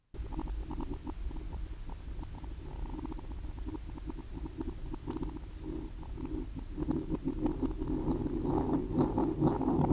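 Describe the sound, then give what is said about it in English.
A hard-boiled egg rolling around in a bowl, played in reverse: a steady, low rumbling roll dotted with small clicks, swelling slightly louder toward the end, with no voices. “And uh, have you ever wondered what a hard boiled egg rolling around in a bowl sounds like in reverse?”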